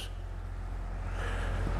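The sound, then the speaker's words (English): A tractor rumbles by with a heavy, steady low-frequency drone that swells slightly louder toward the end, with no talking over it. “That's a tractor going by and losing me trying to talk to me.”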